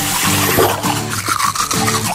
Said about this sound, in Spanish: Cerrar el grifo mientras nos cepillamos los dientes.